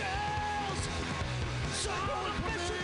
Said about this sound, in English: All right, guys, your next comic, very, very funny dude. Let's get this claps going now. Let's make it loud.